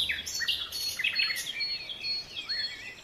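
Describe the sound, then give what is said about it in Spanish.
Several small birds sheltering in tree branches sing and chirp continuously, their bright, high twittering calls overlapping in a lively chorus against a quiet outdoor background, with no voices present. “¿A poco no cantan hermoso esos pajarillos que se resguardan en mis ramas?”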